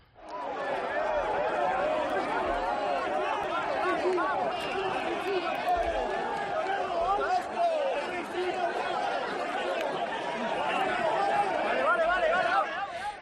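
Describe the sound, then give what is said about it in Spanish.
A huge bullring crowd in Seville, in April 2016, cheers a matador's triumphant exit through the Puerta del Príncipe, a dense, steady roar of countless overlapping voices that stays loud and unbroken throughout, with no single speaker standing out. “La salida, la salida puerta, la puerta al príncipe.”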